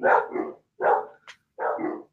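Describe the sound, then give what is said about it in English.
Dogs barking in three loud bursts with short pauses between, plus a brief higher yip in the middle; no one speaks. “I hear the dogs.”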